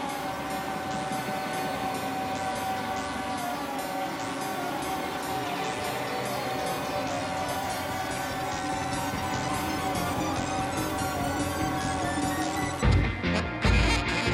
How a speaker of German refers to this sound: Und so einer kann dann eben auch mal drei Instrumentalstücke auf so einem Album platzieren. Eines davon klingt so.